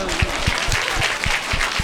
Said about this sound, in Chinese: 哦，把掌声送给这个。